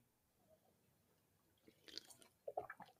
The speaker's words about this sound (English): And I just took another huge drink uh, of this. It's way bigger than a sip.